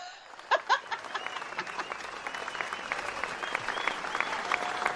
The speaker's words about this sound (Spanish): Un aplauso.